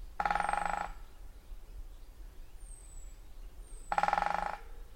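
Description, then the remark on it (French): A great spotted woodpecker drums with its beak in two short, rapid rolls a few seconds apart, crisp, with faint high bird calls in the background. “Et ici, c'est le tambourinage d'un pic et pêche.”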